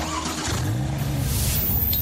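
A car engine revs up and accelerates, a steady low rumble that swells in pitch and intensity over about two seconds, loud with no voices.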